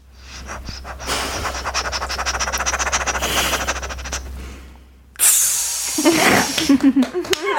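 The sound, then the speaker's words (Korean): A voice on a radio show imitates a rice cooker finishing cooking rice: a long, breathy steam-like hiss for about five seconds, then abruptly switches to squeaky, high-pitched vocal chirps and tones. “광고 나가는 동안 어떻게 밥솥 준비가 됐을까요? 어, 네, 열심히 취사 준비하고 있었습니 취사는 됐고 한번 성대모사 한번 들어볼게요.”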